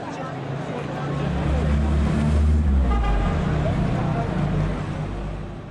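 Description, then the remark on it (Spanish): Steady street traffic rumbles with engines droning, while car horns toot repeatedly through the din, swelling louder in the middle before easing slightly. “Como ustedes acaban de escuchar, hice esa pausa para que ustedes pudieran escuchar, ese ruido, así es como nos escuchamos nosotros en el mundo.”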